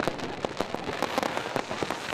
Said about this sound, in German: Es ist super toll dieses Jahr Silvester hier. Ähm, viele Böller, viele Kracher und ist schön einfach.